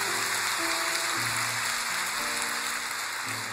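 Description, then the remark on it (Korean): A church audience applauds steadily in thanks to God, a dense, even wash of clapping hands lasting several seconds, with sustained organ or keyboard tones humming underneath. “우리 하나님께 감사의 박수 한번 올려달리십시오 네.”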